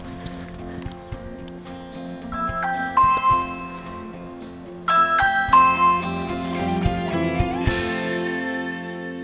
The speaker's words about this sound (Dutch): Ah, mooie donkergroene voordeur. Even kijken, waar is de bel? Hier is de bel.